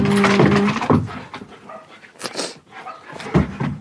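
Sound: dogs barking excitedly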